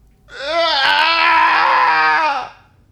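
A single loud, drawn-out anguished cry that swells into a strained scream of anger, holding for about two seconds before cutting off, with nothing else around it.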